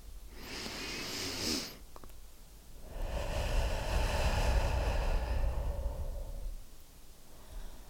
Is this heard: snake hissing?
no